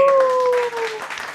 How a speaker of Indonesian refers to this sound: Iya nanti saya masukkan suara tepuk tangan yang meriah. tepuk tangan yang meriah lagi sekali biar Seperti banyak.